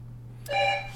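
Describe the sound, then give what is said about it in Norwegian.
A doorbell chimes once, a bright electronic tone with clear harmonics that rings for about half a second and fades, over a steady low hum. “Oi, ringte på.”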